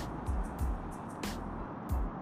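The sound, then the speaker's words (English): A steady low rumble of road and engine noise fills a car's interior, with a few soft thumps and brief airy bursts breaking through the constant hum. “I'm actually doing this podcast in the car, so you know, by any means necessary, you know, you gotta get it, you know what I'm saying?”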